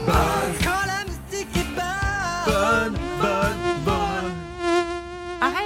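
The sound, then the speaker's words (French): A whiny, mosquito-like buzz drones through a short musical game jingle, its pitch bending and wavering over steady beats. It stays loud for the whole few seconds, with no talking. “Moi j'adore le jingle. Ah Quand la moustique est bonne.”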